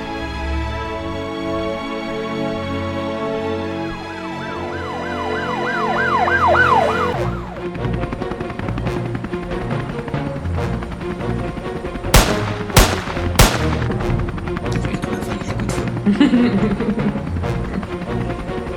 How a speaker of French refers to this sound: Bon, à tu peux le couper un peu parce qu'il est long. Hein. Ou pas. On est parti pour un quart d'heure de jingle.